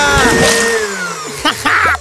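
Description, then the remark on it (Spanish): A kitchen blender roars loudly, its whining motor pitch sliding steadily downward as it slows, with brief voices breaking in near the end. “Está bien, pero primero pone la tapa a la licuadora.”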